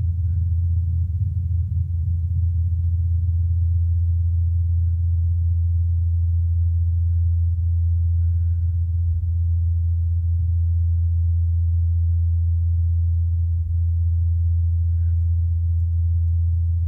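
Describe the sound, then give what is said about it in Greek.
Rotor blades of a helicopter on Mars spinning very fast, at 2,537 revolutions per second, recorded by the SuperCam microphone on the Perseverance rover from 80 metres away. Heard as a steady, unbroken low hum with a deep droning tone that holds evenly for the whole stretch, with no voices. “Αυτό το χαμπλαρό, μουρμουριτό που ακούγεται είναι ο αέρας στον Άρη αλλά μπορείτε να διακρίνετε, να ακούσετε είναι οι έλικες του ελικοπτέρου που γυρίζουν πάρα πολύ γρήγορα.”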